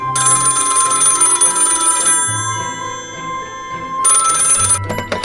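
A home telephone bell rings loudly: a long, two-second metallic ring, a pause of about two seconds, then a second ring that cuts off early. No one speaks.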